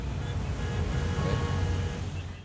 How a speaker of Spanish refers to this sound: Es que sí, la Ciudad de México, amigos. Es un puto caos. Toda la gente tiene prisa para ir a la Starbucks. ¿Otra vez está el tráfico? Eh, así tan marrano como la vez pasada, no. Pero sí hay trafiquito.